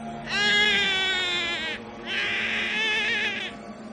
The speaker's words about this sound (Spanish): Pasaban 10 o 20 lentísimos segundos cuando entonces empezaba de nuevo el hipo breve, el quejido apenas perceptible que se prolongaba dulcemente hasta quedarse en verdadero llanto.